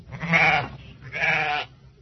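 Two drawn-out, wavering bleats from a flock of sheep, one after another with a brief pause between, fairly loud over a faint low background rumble.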